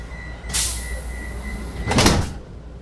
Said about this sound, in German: sie ist gerade in Wien mit der U-Bahn unterwegs in den dritten Bezirk